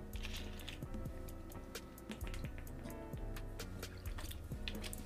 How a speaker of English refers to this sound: Let's, let's drink some water real quick because now.